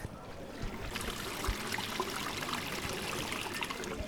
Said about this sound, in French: Là, c'est le bruit des égouts de l'eau.